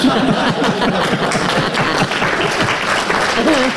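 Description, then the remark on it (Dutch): Steady crowd applause fills the whole stretch, a dense wash of many hands clapping at once, with murmuring voices and a bit of chatter mixed underneath. “dat is iets te luid, iets te spontaan. En dan klappen ze iets voor iets.”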